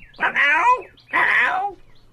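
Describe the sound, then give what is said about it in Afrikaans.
Two loud, harsh screeches from a large brown bird with black feet and red toes, perched on a garden gate early in the morning, one after another with a short pause between, with nothing else heard. “trek gou sy klere aan en stap by die voordeur van sy rooi muurhuisie uit, reguit na die tuinhekkie waar op die groot voël nog altyd sit en elke dan en wan skree.”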